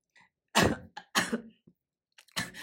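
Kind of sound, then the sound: human body sound, cough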